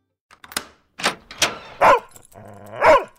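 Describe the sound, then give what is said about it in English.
A dog barks loudly, five or so sharp, irregular barks with a brief whining yelp between the last two, no people talking, as its owner comes home after a week of double shifts and the dog does not recognize them. “That time you got home from a week of double shifts? And your dog didn't recognize you.”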